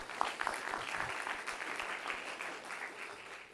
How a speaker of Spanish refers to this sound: Dale un aplauso fuerte, Señor. Dáselo fuerte, Señor.